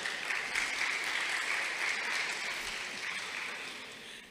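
Sustained audience applause, a dense crackle of many hands clapping at a steady level throughout, easing slightly toward the end, with no voices standing out.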